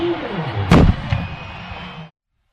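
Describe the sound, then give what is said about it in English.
A single loud celebratory cannon blast booms out after a BYU soccer goal making the score 5 to 1, its deep rumble lingering briefly over steady stadium crowd noise before the sound cuts off abruptly. “That was in the 67th cannon blast surround, and BYU does win it by a final score of five to one.”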